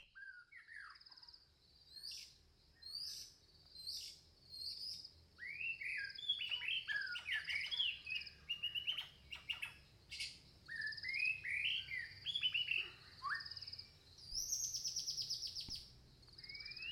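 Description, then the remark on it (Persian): Woodland birdsong fills the air, with several birds trading quick chirps, whistles and trills in bright bursts over a soft, steady background hum. No voices are heard. “خب بچه هنوز دارین خیال میکنین که توی جنگلیم”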